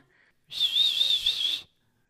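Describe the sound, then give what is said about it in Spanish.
A single breathy attempt at whistling, about a second long, mostly hissing air with a faint, wavering high tone barely coming through, on its own. “Uh, no, no sé chiflar.”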